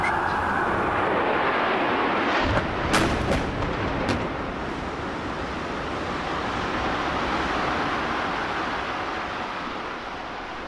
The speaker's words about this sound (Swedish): Klockan är strax efter nio och plötsligt hörs återigen ljud av flygplansmotorer som snabbt närmar